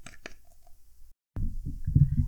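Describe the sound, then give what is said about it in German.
Two quick, wet splashes of cleansing gel, then a brief silence followed by muffled, low rubbing and squelching sounds. “Und ich habe das jetzt mal mitgebracht und wenn ihr das jetzt plätschern hört,”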